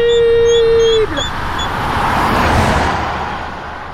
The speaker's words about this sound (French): Les roues de la voiture sont passées à seulement quelques centimètres du hérisson.